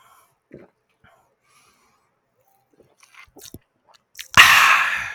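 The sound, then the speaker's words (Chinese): Someone drinks a can of 馆长 (Guanzhang) brand sparkling water: a few faint clicks and soft mouth sounds, then a sudden loud, sustained fizzing hiss that continues to the end. “这麦克风收得到我喝水的声音吗？”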